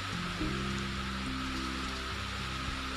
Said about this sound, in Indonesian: Oh iya, di luar sana masih hujan.